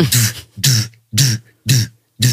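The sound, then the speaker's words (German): A voice imitates the techno sound a car's infotainment center plays through the speakers when the car is started, with five loud, rhythmic vocal bursts, each a breathy, hissy hit over a low thump, evenly spaced about half a second apart. “du machst den den Wagen an und dann geht das Infotainment Center nicht an, sondern es macht nur ein Geräusch. Das hörst du in den Boxen, also vom Info vom Radio, sagen wir mal, jetzt nur mal, ne.”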